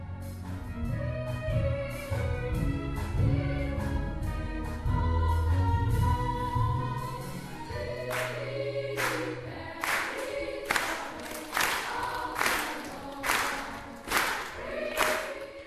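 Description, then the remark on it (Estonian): An audience claps in steady rhythm during a standing ovation, the sharp regular claps joining partway through over a choir singing sustained harmonies. “publik plaksutab rütmis ja koor laulab seisva ovatsiooni taustal.”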